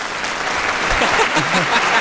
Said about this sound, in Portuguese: palmas, palmas, senhoras e senhores.